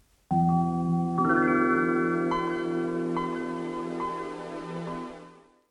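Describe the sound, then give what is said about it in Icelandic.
A Windows 12 operating system startup sound: a warm synthesized chord swells in, bright chime-like notes ring over it, and the whole layered tone fades gently away after about five seconds, with no talking. “hljóðið fylgdi Windows 12 stýrikerfinu sem kom út”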